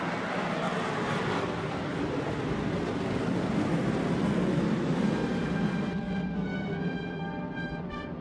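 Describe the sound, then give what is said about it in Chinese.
A B-1B bomber, an aircraft with 181-foot wings, flies over: a loud, steady jet roar fills the whole stretch, with thin, high-pitched engine whines emerging toward the end as the rumble eases slightly. No one speaks. “那么，无论是直接控制的还是非控制的武器投掷的，都是这个 B1B 飞机了。”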